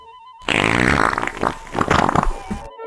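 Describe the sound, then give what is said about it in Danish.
A long, wet fart sounds loud, sputtering for about two seconds with bubbly, uneven bursts before cutting off abruptly. “Pludselig lød en lang og våd prut.”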